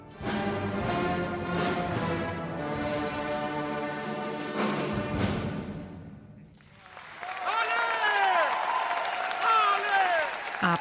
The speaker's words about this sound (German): Applaus für das Orchester und den Dirigenten, die Dirigentin.